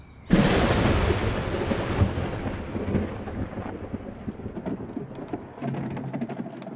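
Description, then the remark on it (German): A loud crack of thunder bursts in and rolls on for several seconds during a storm over Sanahin, with lightning flashing and heavy rain pattering steadily underneath, pouring over the walls of an ancient monastery and continuing as the rumble fades. “Ein Unwetter wütet über Sanahin. Blitze zucken, es regnet in Strömen.”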